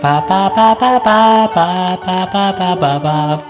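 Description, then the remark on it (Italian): A single voice vocalizes a classical-style melody on a repeated nonsense syllable, about ten clear pitched notes in a steady, bouncy rhythm with no other sounds. “Sì, secondo me mettono tipo la musica classica.”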